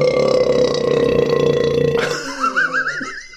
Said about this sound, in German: Kannst du nochmal rülpsen? das geht jetzt nicht mehr, tut mir leid.